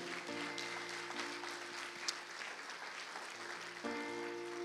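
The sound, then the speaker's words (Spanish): An audience claps loudly and steadily for the Lord, a dense wash of many hands that fills the whole clip, with sustained organ or keyboard chords humming underneath and no one speaking. “Usted le da palmas fuerte al Señor de la gloria.”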